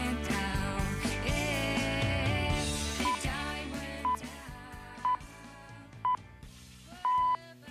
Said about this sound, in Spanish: Qué raro suenan las señales horarias de hoy.